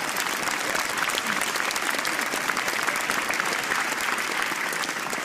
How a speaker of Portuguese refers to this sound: Uma salva de palmas